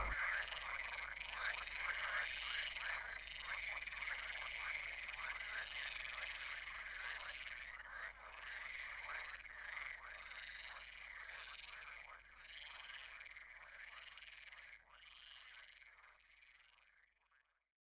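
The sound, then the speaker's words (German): A dense chorus of frogs croaking continuously, many overlapping calls forming a steady rattling din that fills the whole stretch, fairly loud, with no voices. “Doch ist kein Storch weit und breit zu sehen, so geht das Trompetenkonzert weiter.”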